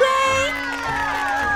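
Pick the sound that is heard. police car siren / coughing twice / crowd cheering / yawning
crowd cheering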